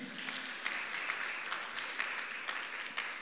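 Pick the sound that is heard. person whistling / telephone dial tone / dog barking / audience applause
audience applause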